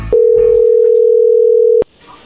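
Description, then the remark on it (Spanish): A steady, unbroken telephone dial tone hums at a single mid-low pitch for about a second and a half, loud and clear, as a phone call is being placed, then cuts off abruptly with a click, leaving faint background noise. “Bueno, a ver, no haga ruido, vamos a ver si te manda los chocolates a ti o a alguien más, ahí se está marcando.”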